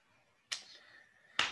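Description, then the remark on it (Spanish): Two sharp slaps on a person's buttocks, spaced about a second apart with a faint ringing tail after the first; no talking. “Gritaste y te hice una nalgada.”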